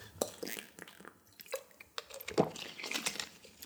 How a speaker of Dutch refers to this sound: Even een slokje water drinken.